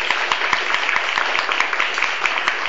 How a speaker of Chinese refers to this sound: 再给老师一个太太太太热烈的掌声。